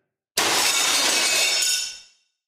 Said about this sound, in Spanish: Y efectivamente, del interior de la casa salía un ruido espantoso, aullidos, estornudos y de vez en cuando un estrepitoso golpe, como si un plato o una olla se hubieran roto en mil pedazos.